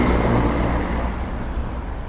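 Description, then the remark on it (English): A steady, loud rumble of heavy traffic crossing a bridge designed 100 years ago, a dense low roar of engines and tires with no break and no voices. “It also was not designed for the heavy trains and trucks that go across it today.”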